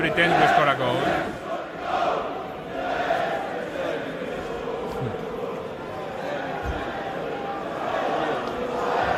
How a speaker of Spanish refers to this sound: llevan varios partidos sin marcar y al acabar su partido eh, en la grada visitante empezaron a cantar vamos a hacer como que marcamos un gol, escucha.